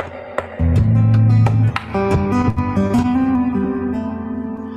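A guitar dropped off a player's knee knocks and clatters, giving a sharp thump followed by loud, ringing string tones that overlap and slowly fade, with a few more bumps and jangles as it settles. No one speaks.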